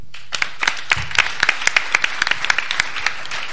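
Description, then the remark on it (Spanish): An audience breaks into applause welcoming the team from Game, a steady patter of many hands clapping at once, moderately loud, continuing without pause for a few seconds with no one speaking. “Un aplauso para”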